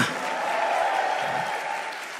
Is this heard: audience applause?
yes